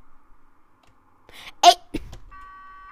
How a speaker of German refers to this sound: das ist jetzt nämlich meine Hupe, so hört die sich jetzt an.